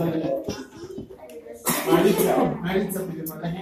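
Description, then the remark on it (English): After a moment of talking, someone lets out a single sudden, loud sneeze, a sharp breathy burst that trails off into more voiced noise. “Yeah, bless you.”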